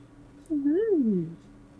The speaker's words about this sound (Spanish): Perdón, es que, tengo un gato acá este, y me está rasguñando.